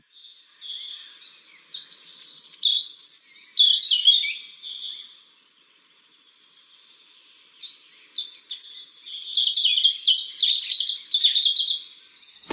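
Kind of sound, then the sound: bird, european robin song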